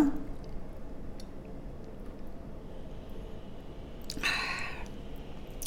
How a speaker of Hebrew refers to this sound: עכשיו אני עוצרת. מי שכבר מכיר אותי יודע למה. היד שלי מושטת לכיוון כוס המים. יש לי מים עם הלוברה, ואני עכשיו לוגמת, רגע,